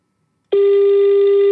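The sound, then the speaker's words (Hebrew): A phone ringback tone on an outgoing call: a single loud, steady, buzzy electronic tone lasting about a second, following a brief silence, with no voices. “בואו ננסה שיחה אחרונה לאחרון בתור היום”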